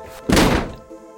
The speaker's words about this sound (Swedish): Ja, jag sitter, sitter, vrålar efter honom, liksom, får dörren eh, igensmälld i ansiktet och, och låter den vara igensmälld.